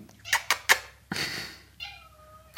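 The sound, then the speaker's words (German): A cat named Madame meows several times: three short chirpy calls, then a longer drawn-out meow and a tonal, wavering cry, ending with another sharp meow. No talking is heard. “Die Katze, Madame,”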